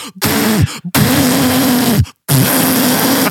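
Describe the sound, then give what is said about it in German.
Three loud, forceful honking nose-blow sounds imitated by a voice, each a noisy blast with a low tonal drone, separated by brief pauses. “schnaubt sich allen direkt hinter mir die Nase und dann schnaubt die so laut”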